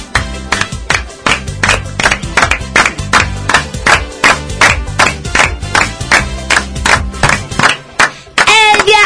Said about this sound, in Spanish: Todos aplaudiendo. Sí.